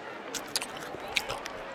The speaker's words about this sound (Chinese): 商人说完，咔嚓咔嚓地开始啃胡萝卜。